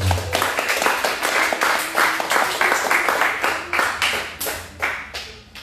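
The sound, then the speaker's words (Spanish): A church audience claps for Jesus Christ together in a steady, rhythmic beat, roughly three sharp claps per second, loud and even throughout, with no talking over it. “Dele palmas a Jesucristo.”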